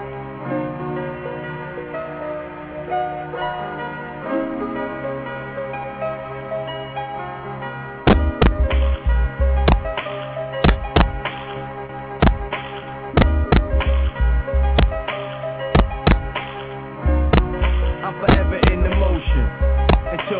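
A new hip hop track played on Viva Fidel Radio opens with about eight seconds of sustained, layered melodic tones, then loud punchy drum hits kick in with a steady, heavy beat under the music.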